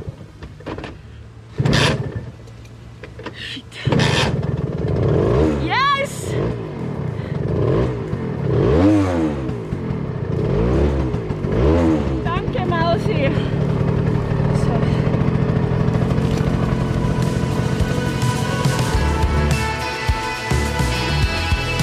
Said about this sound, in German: Was ihr da gerade gehört habt, das war ein Töffli. Was ein Töffli ist, das werden wir heute erfahren